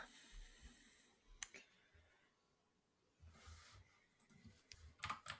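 Quiet clicking of keys on a computer keyboard in irregular bursts while looking up a Twitch stream, with a short pause midway before the tapping resumes more busily; faint background noise throughout, no clear speech.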